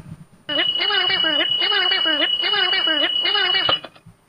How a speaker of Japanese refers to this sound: これのタイトルが「タイトルコール目覚まし」っていう 意味わかりますかちょもう一回聞きますよ。